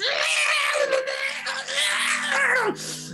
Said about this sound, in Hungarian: egyszerre tíz természetfeletti ilyen bárány bégetős, fájdalmas hang tölti be ezt, ezt a völgyet. Nagyon, nagyon, nagyon kellemetlen, nagyon rossz